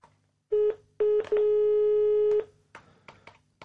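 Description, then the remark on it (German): A phone call being dialed over the outside speaker of a studio telephone: two short electronic beeps, then one long steady tone, followed by a few soft clicks and taps. Fairly loud, with no talking. “Ich finde es auch so cool, dass wir das über den Außenlautsprecher des Studiotelefons machen, obwohl wir hier eine hochmoderne Telefonanlage haben.”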